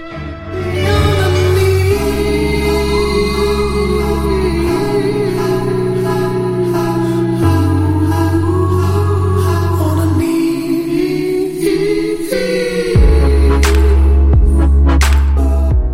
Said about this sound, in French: la prochaine musique, vous l'avez sûrement aussi entendue dans une récente publicité de Proximus